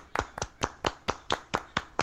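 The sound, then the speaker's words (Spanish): Brief applause for a guest being introduced, from what sounds like a single pair of hands: about ten sharp, bright claps in a steady, fairly quick rhythm, moderately loud and with no talking. “Un aplauso, por favor.”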